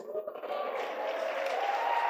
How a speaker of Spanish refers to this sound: Dele ese aplauso a Dios. Dele el aplauso al Dios que te sostiene y nos sostiene.